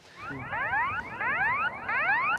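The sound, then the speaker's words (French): A loud electronic bird-scaring alarm at Orly airport repeats rapid rising whoops in three quick bursts. It is steady, with a low rumble of background noise and no voices. It scares birds from the runway so a medical evacuation plane can take off. “L'alarme déclenchée, l'avion sanitaire peut enfin décoller.”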